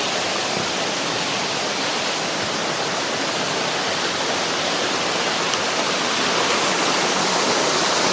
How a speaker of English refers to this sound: Here's a neat waterfall.